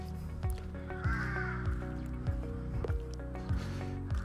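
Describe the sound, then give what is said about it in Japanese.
A black kite calls once with a wavering, whistled cry, fairly clear over steady outdoor street noise in a town, recorded while walking, with low repeated thumps and rumble running underneath. “今ね街を歩きながらね収録してるんでちょっとトンビの声だとかね聞こえちゃうかもしれないですけど”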